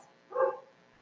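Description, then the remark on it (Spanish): A small dog next door gives a single short bark, muffled, with quiet room tone before and after. “Perdón por el ruido, El perrito de al lado está loquillo.”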